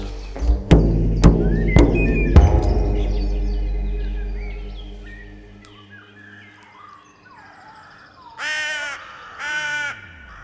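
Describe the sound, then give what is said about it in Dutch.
A crow caws twice in quick succession, harsh, near the end. Earlier, a few sharp, booming strikes ring out and fade into quiet. No one speaks. “Kraai ben ik. Ik ben kraai. Hoor je mij als ik krassend op het dak zit?”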